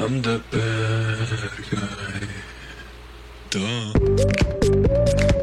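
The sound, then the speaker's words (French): A voice sings sustained, wavering notes into a running electric fan, the blades chopping the tone into a warbling, throbbing buzz. It's fairly loud, with a steadier, louder note toward the end. “et il chante dans son ventilateur.”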